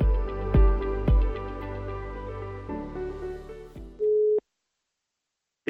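Music plays, then gives way to a single steady telephone ringing tone, sounding for under a second as a call is placed to Viborg Q's talent development head in Viborg, followed by silence and a faint click. No one speaks.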